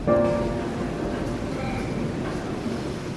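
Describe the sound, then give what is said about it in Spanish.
Steady, continuous rain hisses evenly throughout, with a low rumble underneath and a brief high whine at the start before settling into a constant wash of sound. “Me encuentro desempleado, sin dinero y endeudado, sentado en un banco del metro escuchando la lluvia”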